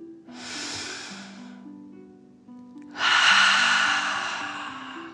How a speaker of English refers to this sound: Breathe in through your nose, filling up your belly, and then out through your mouth, imagining you are breathing fire. Ready? Deep breath in and out.